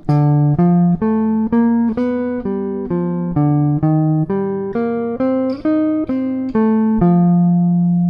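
A single instrument plays a steady run of about fourteen separate, clearly articulated notes stepping through an F7 chord pattern, with E flat as the flat seven, then the fifth, the third and the root, each roughly half a second long, ending on a longer held note.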